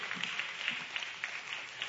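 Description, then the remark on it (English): A church audience gives Pastor Sarah a big hand clap, many hands blending into a dense, crackling wash of applause with sharper individual claps poking through, sustained evenly for a couple of seconds. “Y'all give Pastor Sarah a big hand clap if you would.”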